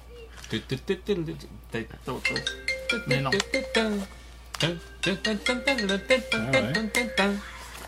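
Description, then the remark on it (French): A voice hums a bright, bouncy melody in quick rhythmic bursts, imitating the default ringtone that came with their phone, clear with short pauses between phrases. “Des fois, je la chantonne, mettons, à l'épicerie, puis il y a du monde qui vont chantonner ça, puis ils pensent que leur téléphone sonne.”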